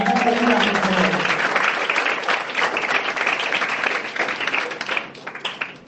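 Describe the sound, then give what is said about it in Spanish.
An audience applauds a company steadily, a dense wash of overlapping claps that holds strong for several seconds before thinning out. A voice briefly overlaps the opening moments. “Un aplauso para la empresa que se va a ir a la”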